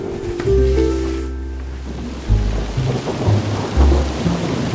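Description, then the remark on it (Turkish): Heavy rain pours down steadily through the night, pattering on rooftops and gurgling in the streets in a dense, crackling wash, with deep rumbling thunder rolling underneath and a few louder low booms breaking through near the end. “Bütün gece yağmur yağdı. Çatılarda patırtılar, sokaklarda şırıltılar duyuldu.”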